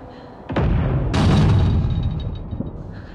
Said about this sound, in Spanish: Me refugio del bombardeo.